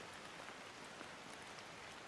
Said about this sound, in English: Listen to the sound of the rain falling around you and feel how your breath animates the ribcage.